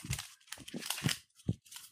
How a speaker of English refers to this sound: Let's hear some paper.